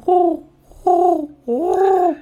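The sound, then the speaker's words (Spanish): Three mellow pigeon coos in a row from pigeons waiting on a window ledge for bread, the first two short and steady, the last one longer with a rising, throaty swell, with no voices or background noise. “Abro la ventana, cojo un currujo de pan viejo, lo, lo rompo y se lo tiro a las palomas que están esperando en el, el pollete de la ventana.”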